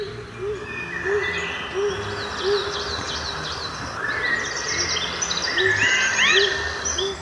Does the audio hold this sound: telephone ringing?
no